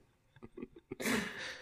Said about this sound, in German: Gesundheit.